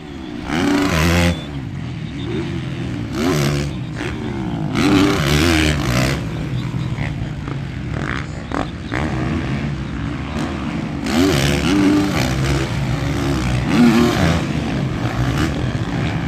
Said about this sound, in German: Das war der Soundscape von einem richtigen Motocross-Rennen.